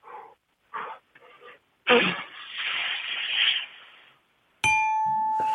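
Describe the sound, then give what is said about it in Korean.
A person imitates air slowly escaping from a deflating tire with a long, breathy hiss lasting about two seconds, after a few short vocal bursts and before a sharp electronic tone. “타, 이어 바람 빠지는 소리가 마지막이 될 것 같습니다.”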